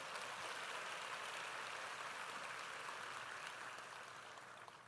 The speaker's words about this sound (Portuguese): Tem mais um aplauso a Jesus pela sua palavra.